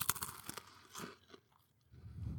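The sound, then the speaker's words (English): A sharp, loud crunch as a potato chip is bitten, followed by a few softer crackling chews that fade, then a low rustling thump at the end. No one speaks. “It's got that it's got that really crisp crunch to it.”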